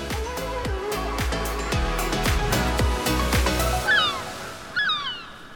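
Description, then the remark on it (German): Gulls cry out several times near the end, sharp descending calls over a steady wash of surf, following a stretch of rhythmic music with a plucked beat. “Wenn man an Schleswig-Holstein, die Nordsee und das Wattenmeer denkt, dann hat man gleich Möwengeschrei im Ohr.”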